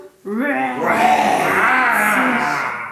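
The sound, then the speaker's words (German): A human voice imitates a lion roaring during a recited rhyme about lions: one long, loud, rough cry that starts abruptly and holds steady for nearly three seconds. “Da ein Lärm die Löwen gähnen, Schütteln ihre Löwenmähnen. Brüllen laut.”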